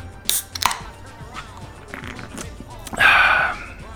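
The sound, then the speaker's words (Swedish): A cola can being opened: a couple of sharp metallic clicks, then a few seconds later a loud burst of fizzy, hissing gas that lasts about half a second before fading. “Då tar vi en colaburk på det.”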